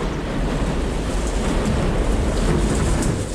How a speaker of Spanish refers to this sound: Una feroz tormenta se abate sobre el barco Trelawney, a dos días de navegación de Liverpool.